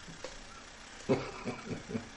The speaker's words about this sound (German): Ja, da kommt ein Feuerstoß raus, ne? flattert und stottert. Was ist das? Oh, funktioniert. Klingt ja wie mein Terrassenheizstrahler.